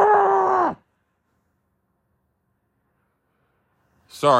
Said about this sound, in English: I had to scream into my pillow because what the motherfuck?